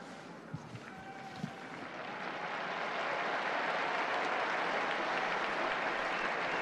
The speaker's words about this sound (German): Die Gläubigen jubeln dem Heiligen Vater zu